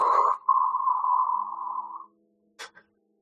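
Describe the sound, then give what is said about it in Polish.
A person vocally imitates a rocket engine blasting off, for the character Daryl firing his atomic engine and flying after Marsha: a steady, droning whine held for about two seconds, fading out, then one short, sharp burst after a brief pause. “Jest, y, odpalając swój y, atomowy silnik, robi i frunie za mm, Marszą.”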